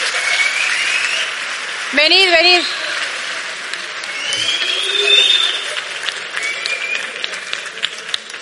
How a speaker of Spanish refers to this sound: Muchas gracias. Un aplauso para estos colaboradores.